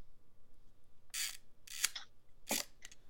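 A camera shutter set to half a second clicks and rasps unevenly, several short dry mechanical bursts with irregular gaps, as if the mechanism is catching and sticking, against a quiet background.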